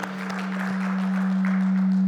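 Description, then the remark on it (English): An audience claps for the worship team after it led the morning worship, in a steady, dense patter that holds for about two seconds, with a constant low electrical hum droning underneath the whole time. “Can we give the, the worship team a round of applause for leading us in worship this morning?”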